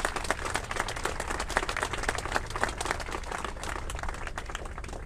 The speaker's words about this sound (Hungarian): Egy nagy tapsot kérek Dobrev Klárának!